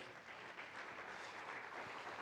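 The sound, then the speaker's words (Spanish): Steady applause from a crowd giving a round of applause to God, a dense crackling wash of many hands clapping at once, sustained and fairly loud throughout with no voices standing out. “Vamos a darle un aplauso a nuestro Dios”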